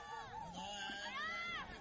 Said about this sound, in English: And got some Swedish fans there cheering.